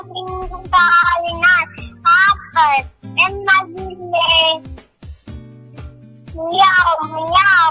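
A string of high, wavering meows, about six or seven in a row, loud and close, over a steady low musical backing with short pauses between them.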